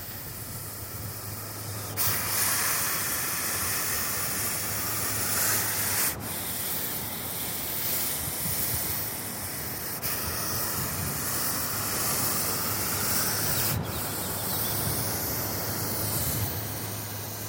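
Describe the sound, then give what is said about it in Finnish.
A common European adder hisses at an approaching human in long, steady breathy bursts, about four in a row with brief breaks between them. The hissing is loud, over a faint low hum, with no voices. “Lähetimme juuri kyyn ääntelyä tässä Luonto herää kevääseen ohjelmassa.”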